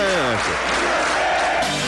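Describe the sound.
A large crowd of football fans roars and sings happy birthday together in a dense, sustained wash of voices, loud and continuous, with a few voices rising in pitch near the start.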